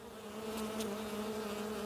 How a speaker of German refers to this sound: Es ist warm und windstill. Der naturnahe Garten in der Nähe von Hilpoltstein ist erfüllt von einem leisen Summen. Dicke Hummeln fliegen von Staude zu Staude